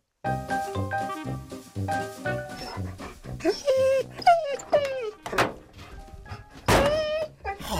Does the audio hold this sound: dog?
yes